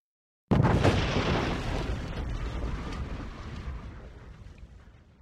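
A large rock shoots up from a planet's surface and slams into a metal catwalk with one sudden, loud crash, tearing a gap in the floor and shattering the railings, followed by a deep rumbling roar that slowly fades over several seconds. No voices.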